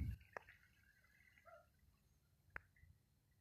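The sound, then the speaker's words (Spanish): Two faint, isolated water drips plink about two seconds apart against a quiet, low background hum, with no voices present. “Y mientras quizás escuchas un poco de ruido de agua o algún ruido de algún motor por el lugar en el que yo estoy grabando esto”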